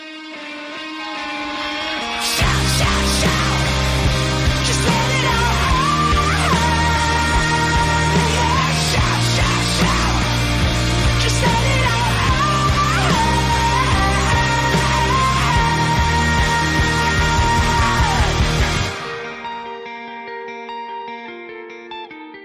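A loud, driving song with heavy bass and dense layered instruments kicks in after a brief lead-in, holds full force for about fifteen seconds, then cuts to a ringing, fading tail.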